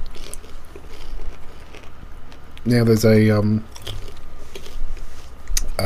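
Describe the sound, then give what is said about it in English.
Steady crunching and chewing of lollies with a hard toffee shell runs through the whole recording, with a brief burst of someone speaking near the middle. “They're more sweeter. Mm-hmm. And crunchier. Very crunchy.”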